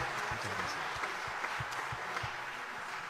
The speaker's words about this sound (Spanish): Eh, es magnífico además lo que han logrado con la orquesta, a la cual voy a pedir un nuevo aplauso. La orquesta y el maestro Fabián Bertero que ha realizado la totalidad de los arreglos de esta noche. ¿eh? Un aplauso para el maestro Fabián Bertero.